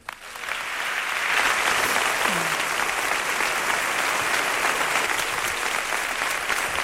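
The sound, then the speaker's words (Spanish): Sustained audience applause, a dense steady wash of many hands clapping that swells in within the first second and holds at an even, loud level throughout, with no one speaking over it. “Pues este es el aplauso que cosecha.”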